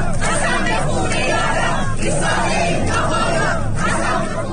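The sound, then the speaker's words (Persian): A large crowd of women protesting compulsory veiling (forced hijab) chants a slogan in unison, loud and continuous, with rhythmic swells in the massed voices and a dense roar of shouting throughout. “اما زنانی خسته از تحقیر مداوم اراده کردند تا دیگر تن به پوشش اجباری نمیدهند و یک شعار را مدت هاست که بر زبان دارند”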